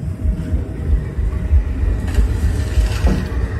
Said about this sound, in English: No, I just got shook myself. Thunder and lightning.